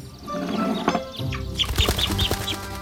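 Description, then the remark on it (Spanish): A sudden flurry of bird wings flapping as a bird appears from an empty bowl in a magic trick, a quick run of soft beating bursts mixed with a few bright chirps over a steady background hum. “Puede crear un pájaro a partir del aire.”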